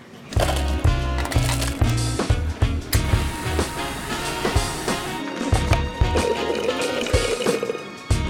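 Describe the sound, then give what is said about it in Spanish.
A body plunges into a river of sewage in a film: loud, continuous sloshing and gurgling thick liquid with heavy, rhythmic low thumps, dense for about eight seconds, with no voices. “Descripción gráfica y sonora sea, si alguna vez te preguntaste cómo sería caer en un río de caca, ya la película tiene la respuesta, porque así suena.”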